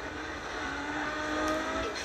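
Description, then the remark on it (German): A supercar roars along at high speed, its engine note sustained and steady with a broad rush of wind and road noise, loud throughout, with no one talking. “Ähm, an sich der Wagen vom Tempo her auch echt krass. Also 400 km/h ist natürlich super.”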